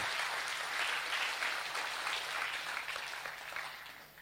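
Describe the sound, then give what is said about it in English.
A crowd claps to give praise to God in a dense, even wash of applause that holds strong, then gradually eases off toward the end, with no voices standing out. “Come on, clap.”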